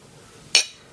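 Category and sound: household object, glasses clinking together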